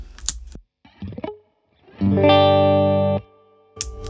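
An electric guitar played through an effects pedal: a few short, muffled picked notes and clicks, then a loud, thick, buzzing sustained chord for about a second before cutting off, followed by more faint plucks.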